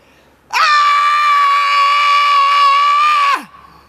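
A person lets out one long, loud scream to release stress, holding a steady high pitch for about three seconds before it breaks off with a quick downward slide, heard alone with no talking.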